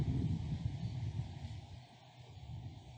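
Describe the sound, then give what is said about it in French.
Steady wind buffets an outdoor microphone, a low rumbling roar with slight surges that fills the whole few seconds, with no talking. “Il y a du vent aujourd'hui.”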